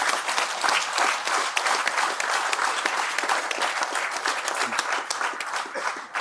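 applause

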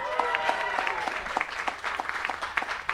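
audience applauding and cheering

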